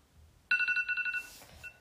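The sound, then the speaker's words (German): A bright electronic 'Radar' timer alarm tone, signalling that the set time is up, starts abruptly, chiming in rapid repeating pulses of stacked high pitches for about a second before fading with a brief trailing note, clear with no talking. “Das, ich habe äh, Radar ausgewählt. Also das hört sich so an, wenn die Zeit dann vorbei ist.”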